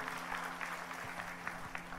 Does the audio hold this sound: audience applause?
yes